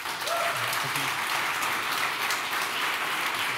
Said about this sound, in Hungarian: Köszönöm szépen a képviselő uratnak, hogy eljöttek és vállalták a részvételt az előválasztási vitán. Mindháromnak szeretnék kérni egy nagy tapsot a közönség részéről.